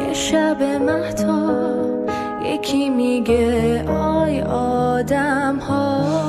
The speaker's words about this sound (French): En fait, c'est la reprise de Bella Ciao en farsi. Et Bella Ciao, c'est le chant des partisans italiens